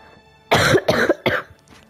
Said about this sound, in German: Digga, wie ich immer huste, let's go. Keiner hat mir bis jetzt gute Besserung gewünscht.